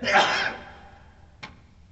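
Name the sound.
a sneeze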